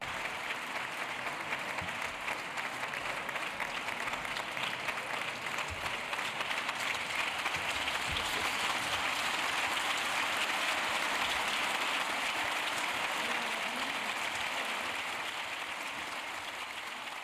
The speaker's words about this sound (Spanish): una salida sin algarabías, sin insultos y contrarrestada además con aplausos más sonoros por parte del resto del hemiciclo.